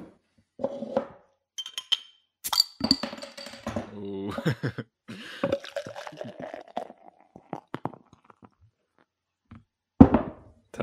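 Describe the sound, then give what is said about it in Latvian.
A beer is opened with a sharp hiss, then poured in a short run of rhythmic glugging, with clinks of glass. Brief talking and a laugh come in around the sounds. “Kādu alu tu tikko atvēri un tagad dzersi?”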